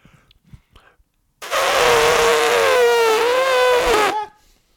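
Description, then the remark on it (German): A person imitates an elephant trumpeting with a loud, sustained, brassy blare lasting almost three seconds, its pitch wavering slightly before cutting off. Faint soft sounds come before it. “Elefant kann ich gut.”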